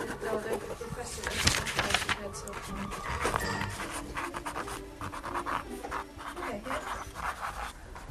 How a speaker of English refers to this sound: But I mean, look at this. Ardmore Sound has a great den here full of everything. This is for a little girl writing.